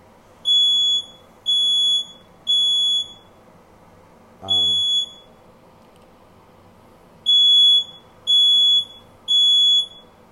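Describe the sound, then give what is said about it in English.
A smoke alarm sounds loud, piercing beeps in a repeating pattern of three evenly spaced blasts, pausing between rounds, with a brief low thump partway through and no talking. “Sorry again about the smoke alarm.”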